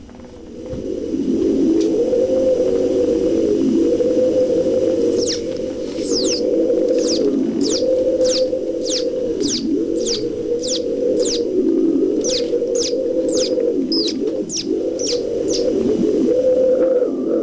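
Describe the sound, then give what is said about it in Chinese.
An African musical instrument imitates wind: a steady, loud whooshing drone that rises and falls in gentle swells, overlaid midway by a series of quick, high, bird-like chirping whistles. “有一个能给大家带来一个神奇的风的感觉，是吧？ 对对， 嗯 这种乐器非常有意思。”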